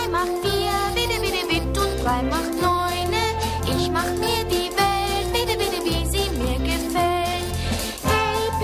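An upbeat theme song plays loud, with sung vocals over a full, bouncy instrumental backing that keeps going steadily throughout.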